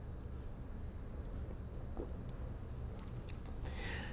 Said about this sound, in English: So let me just take a cup of a cup of my coffee. Let me just take a sip of my coffee here.